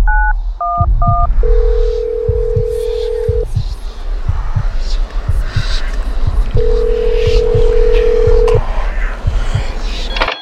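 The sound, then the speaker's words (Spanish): Three quick telephone keypad dialing beeps at the start, followed by two long, steady ringing tones, all sitting over a busy background with a soft, regular low thump. Someone is dialing 911 on a telephone taken from a bedside table. “Tomé el teléfono de la mesita y marqué al 911.”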